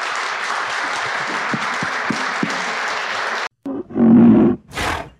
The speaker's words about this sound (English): Well, gentlemen, thank you. Uh, I think we should all stand up and give these guys a big round of applause.